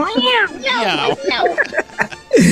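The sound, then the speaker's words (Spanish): A person mimics a cat, giving a few drawn-out, wavering meows, fairly loud, with a final short rising-falling meow at the end. “Me puede decir miau, re miau.”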